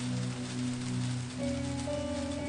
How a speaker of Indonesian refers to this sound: Saya beritahu dia bahwa saya akan pulang terlambat sebab hujan deras sekali.